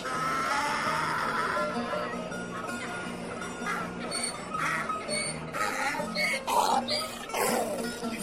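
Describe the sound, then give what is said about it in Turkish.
A donkey loaded with two barrels of pickles brays loudly in a street with many houses and people, its rasping, honking calls repeating in a long uneven series against a noisy background, swelling toward the end. “diye anırmaz mı?”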